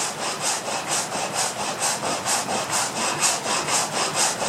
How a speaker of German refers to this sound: Begleitete uns in der ersten Zeit das lustige Klappern der Wassermühlen, denen aus dem flachen Lande das Getreide zugeführt wird, so hörten wir an seiner Stelle bald ausschließlich den eigentümlich schlurfenden Ton großer Sägewerke.